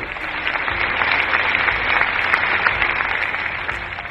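Sustained audience applause for an audience member who answered a question, a dense crackle of many hands clapping at a steady, fairly loud level for several seconds with no one speaking over it.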